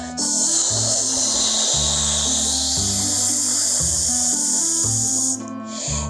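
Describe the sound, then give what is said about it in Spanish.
A steady, loud hiss of air escaping from a deflating balloon runs for about five seconds over a stepping musical bass line, then cuts off abruptly with a brief trailing puff. “Inmediatamente se escuchó un silbido.”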